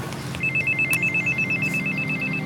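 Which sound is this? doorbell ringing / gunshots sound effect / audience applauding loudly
doorbell ringing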